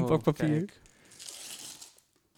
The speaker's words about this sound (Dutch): Ja, scheur het lekker dat de, de luisteraars het kunnen horen.